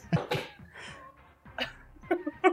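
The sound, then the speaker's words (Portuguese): A sharp sneeze bursts out near the start, followed by a few softer breathy vocal noises and short sniffly sounds over the next couple of seconds. “Saúde.”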